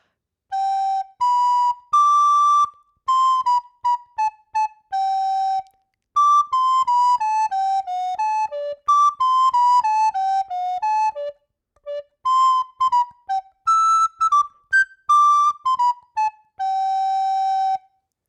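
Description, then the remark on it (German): A simple song melody played as a single clear, high line of notes, moving in short phrases with brief pauses between them, steady and fairly loud, with no talking. “Ich spiele dir das Lied einmal vor und du kannst mir dann vielleicht gleich sagen, was aus deiner Sicht, so wie du das Lied kennst, mhm.”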